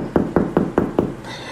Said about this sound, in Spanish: Y en la madrugada, en la mañana, o sea, era mi madrugada porque eran como las cinco y media de la mañana días, escuchó cómo tocan la puerta